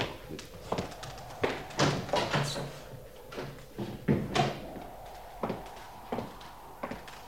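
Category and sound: household object, door opening and closing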